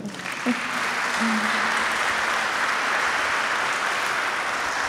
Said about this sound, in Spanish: Dale otro aplauso al Señor.